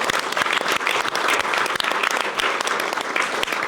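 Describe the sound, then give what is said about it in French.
An audience applauds steadily for the event's live caricaturist, a dense wash of many hands clapping at once with sharp individual claps poking through, sustained at a fairly loud level without any talking over it. “je vous demande au passage d'applaudir et de saluer Ignace, notre caricaturiste.”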